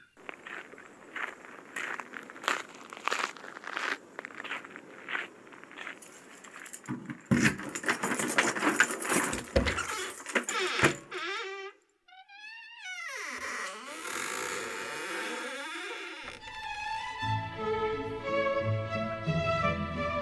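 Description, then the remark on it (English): A bunch of keys jangles steadily for several seconds, then a few clunks and a creaking sweep as a door swings open, followed by a short tonal musical flourish. “get his keys out and let's take a wander up to the Village Hall of Fame”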